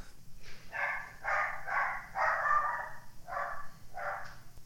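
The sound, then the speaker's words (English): A dog barks repeatedly in a quick series of about six sharp, yappy barks, moderately loud, with a low background hum underneath. “Dogs hate my podcast.”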